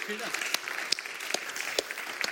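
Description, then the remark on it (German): An audience claps steadily for two guests after a conversation, a dense wash of applause with a few sharper claps standing out, and a brief voice near the start. “Gebt mal einen Applaus für die beiden.”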